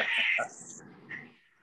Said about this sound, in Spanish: Eso es un gato chingando, ¿verdad? No, están peleando. No, a veces chingan. Así se escucha cuando chingan.